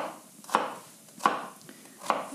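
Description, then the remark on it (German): A knife dices onions into small cubes on a cutting board, three sharp chopping knocks at a slow, even pace with soft rustling of onion pieces between them. No one speaks. “Gut, ich gehe zum Brett und wir schneiden jetzt äh, Würfelchen aus den Zwiebeln.”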